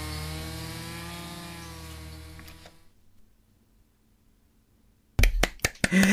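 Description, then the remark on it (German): A chainsaw engine drones loudly with a steady buzzing whine for about two and a half seconds, then cuts out into near silence before a few sharp knocks and clatters. “Langsam stehe ich auf und schaue mich um, als plötzlich das Geräusch einer Kettensäge meine Aufmerksamkeit erregt.”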